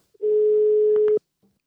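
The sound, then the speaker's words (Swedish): A single outgoing-call ringing tone plays through a phone line on a call to a band in England: one steady, even beep lasting about a second, clear, ending with a couple of faint line clicks. “Det är Jazz och Bluespodden, Kungsbacka calling.”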